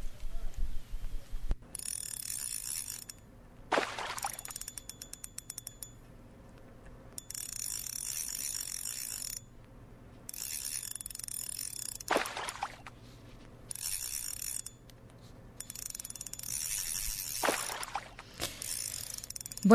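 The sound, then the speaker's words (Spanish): A fishing reel ratchets in repeated bursts as someone fishes, a dense metallic clicking that starts and stops every couple of seconds, fairly loud over a low steady background hum. “Bueno, pues estamos escuchando eh, a alguien a alguien pescando.”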